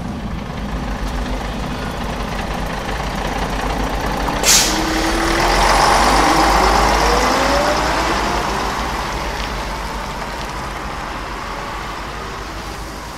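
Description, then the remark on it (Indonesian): A bus engine rumbles steadily as students board the bus to travel to a community service site in Subang, with a short sharp hiss of air brakes near the middle before the motor revs up slightly and settles again. No one speaks. “Setelah briefing, kami pun langsung menaiki bis yang siap mengantar kami menuju lokasi KKN di daerah Subang.”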